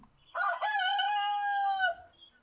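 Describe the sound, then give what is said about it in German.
A recording of a rooster crowing once, loud, a long drawn-out call with a sharp start and a sustained, slightly falling tone, surrounded by quiet. “hast du einen ja, Hahn”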